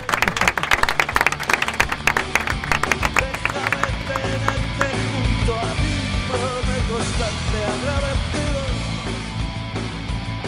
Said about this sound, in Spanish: te despedimos con este fuerte aplauso que no sé por qué se ha parado.